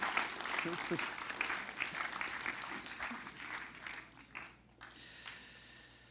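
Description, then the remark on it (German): An audience claps together in a dense, steady patter of applause that gradually thins out and fades toward the end, with a few scattered claps and faint voices remaining. “Lass uns Ihnen einen herzlichen Applaus geben.”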